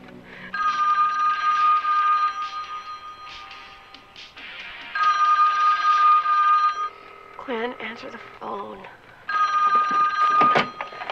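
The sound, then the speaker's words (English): A telephone rings loudly in three long, trilling bursts separated by short pauses, with a brief snatch of voice between the second and third rings, in a scene from the film A Nightmare on Elm Street as Nancy phones. “Or you could be like Freddy and phone Nancy.”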